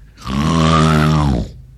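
A single loud, drawn-out human snore, a deep rasping rattle with a buzzing low pitch that swells and holds for over a second before cutting off. No one speaks.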